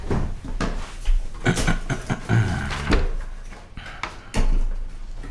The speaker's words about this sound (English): Um, and we're getting ready to pop open door number 15 of the Brewer's Advent Calendar from Costco.